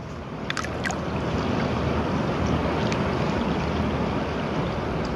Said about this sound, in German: Wir haben es gehört, Tadschikistan ist ein Wasserschloss mit vielen Seen und Flüssen. Wir hören das hier.